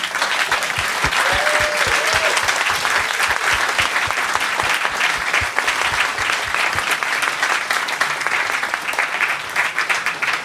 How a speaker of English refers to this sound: Well, listen, please let's give our panel uh, a big hand.